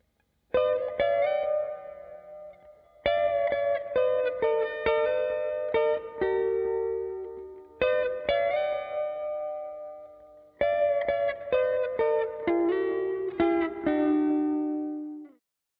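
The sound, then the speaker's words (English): Clean electric guitar lead tone through an MXR Carbon Copy analog delay pedal set to a small amount of delay plays four short melodic phrases, a soft delay adding a light echo tail, each phrase ringing out before the next begins. Instrumental, with no voices. “We're going to dial in a relatively small amount of delay just to give the sound some ambient echo as if it's being played in like a large hall.”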